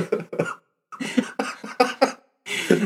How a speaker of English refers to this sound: Don't. You're gonna throw yourself into a coughing fit. oh yeah, we're a little under the weather.